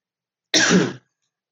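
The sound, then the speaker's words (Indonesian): A single short, loud throat clear with a coughing edge, lasting about half a second and followed by silence. “hari ini kalau gue batuk uh,”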